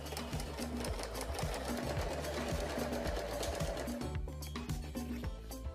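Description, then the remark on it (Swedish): A sewing machine runs steadily as it sews up a torn vacuum cleaner dust bag, its needle clattering in a fast regular rhythm, with a brief change in pace near the end as the stitching goes forward, backward and forward again. “Nu ska jag gå in och sy igen det här med, ja, kan man välja raksöm eller zigzag.”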